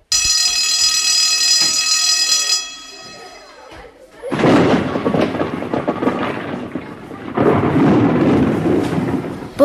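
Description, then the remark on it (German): A steady, ringing alarm-like tone fades out, then loud, heavy thunder rumbles and rolls through in two long waves. “Hast du den Donner gehört?”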